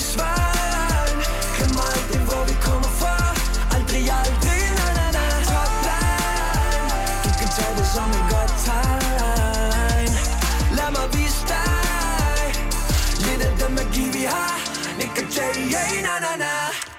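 A loud, bouncy pop track with a sung vocal melody over punchy beats and bass, playing on Nova radio on a Friday afternoon, before the low end drops out near the finish.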